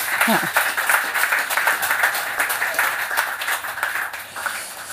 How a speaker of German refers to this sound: Sehr schön. Ja, Applaus.